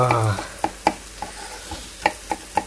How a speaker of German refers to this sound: Ihr hört brutscheln, ja, ne?